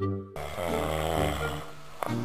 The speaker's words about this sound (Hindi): ऊपर से आस पास चल रहे खर्राटों की कंपटीशन से वो बदहवास सा हो गया था